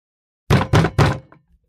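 Three loud, heavy knocks come from a wooden chest of drawers standing in a living room, landing in quick, even succession, each ringing briefly before fading into silence. No one speaks.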